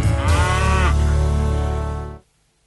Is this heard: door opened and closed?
no